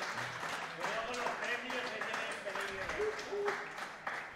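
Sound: applause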